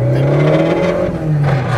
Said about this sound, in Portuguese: É muito legal isso, mano. Você viu como ele sobe o giro rápido, cara? É muito rápido o giro subindo.